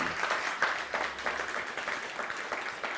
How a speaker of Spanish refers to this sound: Démosle un fuerte aplauso al bendito sea por esta maravillosa noche, por esta maravillosa velada.